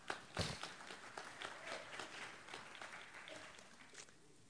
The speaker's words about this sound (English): Amen. That's clappable, I think. One clap.